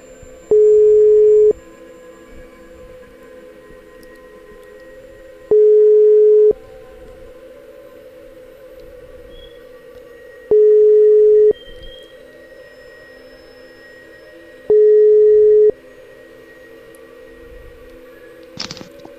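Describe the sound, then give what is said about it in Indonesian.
An outgoing phone call ringing tone: four steady electronic tone bursts, each about a second long, repeating at regular intervals of about five seconds over a low line hiss, no talking. “Uh, mungkin langsung aja kita telepon ya.”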